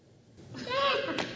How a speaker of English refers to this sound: It's an interrupting cow. He interrupts. That's what he does. He's like, moo, right?